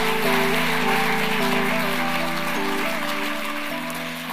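An audience applauds with dense, steady clapping that holds for several seconds and eases slightly toward the end, while low sustained musical tones play underneath.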